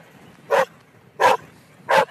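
A dog on a snowy mountain pasture gives three sharp, loud barks at a person, evenly spaced about a second apart, with only faint background noise between them and no talking.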